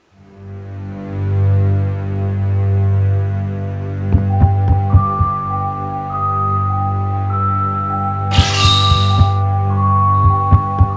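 Muffled thuds of a person running on the floor above at 1 a.m. come in quick irregular clusters over a steady low droning hum, with a faint tone sustained in the background.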